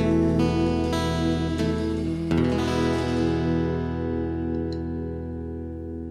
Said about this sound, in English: you can hear David the drummer make a clicking sound as he puts his sticks together